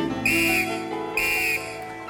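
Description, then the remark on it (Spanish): Someone whistles an imitation of crickets chirping at dusk in the forest of Regenwald: two short, high, shrill bursts with a brief pause between them, fairly loud, and no talking. “Los grillos cantaban también.”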